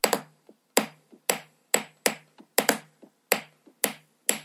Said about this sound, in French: Et donc cette histoire de cheval au galop, ça m'inspire les percussions de la chanson qui arrivent à partir du deuxième couplet. Et là, je prends vraiment des baguettes chinoises et je commence à taper sur le bois de ma station de travail, là, le...